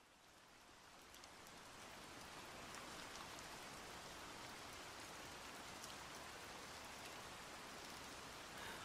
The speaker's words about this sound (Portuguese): Você olha para a janela e está chovendo.